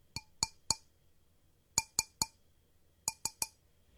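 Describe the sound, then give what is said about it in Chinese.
Knocking on window glass in the morning, in three bursts of three sharp, ringing raps. Each burst is a little quicker than the last, growing more insistent. No one speaks. “越来越急的敲玻璃声。”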